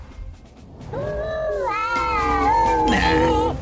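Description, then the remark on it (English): A small robot pet bot lets out a warbling, whiny electronic vocalization like the WALL-E noise. It slides up and down in pitch, fairly loud, and lasts a couple of seconds with no talking over it. “Oh, it's like literally making the WALL-E noise as well.”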